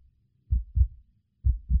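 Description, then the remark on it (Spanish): A heartbeat sound effect in a music track: two deep, thumping heartbeats in a lub-dub rhythm, low and muffled, sitting alone with near silence between the pairs. “Efectivamente, el corazón es el rey. Latidos de ….”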